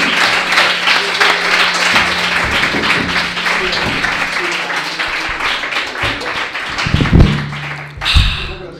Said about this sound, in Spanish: Un aplauso. Para aquella vez que no vino nadie también.